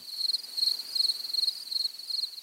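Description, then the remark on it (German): A field cricket chirps in steady, evenly spaced pulses, a shrill high-pitched trill repeating about every third of a second, moderately loud with no voices present. “Wir hören den Gesang der Feldgrille, einer der häufigsten Grillenarten in Österreich.”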